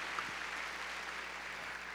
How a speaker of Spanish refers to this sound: A ver, démosle palmas fuertes al Señor. Muy bien.